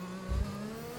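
An F1 race car engine drones with a steady, buzzing tone, broken by a brief low rumbling blip partway through as the driver brakes and downshifts to second gear for a sharp right turn. No one speaks.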